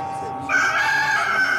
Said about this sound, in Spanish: En ese momento el gallo cantó por segunda vez y Pedro se acordó de lo que Jesús le había dicho.